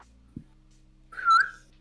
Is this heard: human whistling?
yes